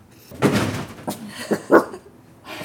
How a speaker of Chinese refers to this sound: 弟弟， 弟弟弟弟别跑！ 弟弟也别叫了，弟弟是我养的狗，一只小西高地。